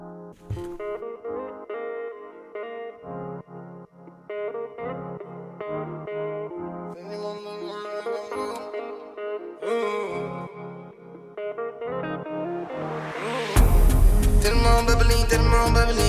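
A French rap track, produced in one hour by four beatmakers, plays loudly, its heavily effected, chorus-laden synth beat running steadily with no vocals, then swelling into a dense, distorted burst near the end.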